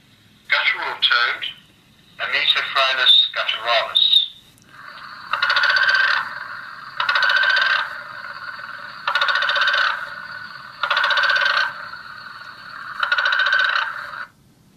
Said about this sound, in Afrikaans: vir verskeie weke sal hulle dan nou uh vir die aankoms van die wyfies wag en in die aande sal hierdie paddas 'n groot lawaai opskop om dan nou die wyfies na die waterbron te lok. Nou ek het so 'n opname gemaak. Dit is soos hoe hierdie paddas klink.